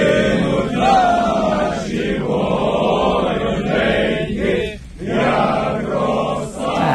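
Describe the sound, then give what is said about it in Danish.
A large group of Ukrainian men, soldiers returned home in a prisoner exchange, sings the Ukrainian national anthem together outdoors in front of the buses that brought them home, wrapped in Ukrainian flags, their voices blending in loud, sustained chorus lines with brief pauses for breath between phrases. “De, øh, de synger nationalsangen, og det gør de foran de busser, de er kommet hjem i, og så står de ellers med ukrainske flag om sig og krammer hinanden.”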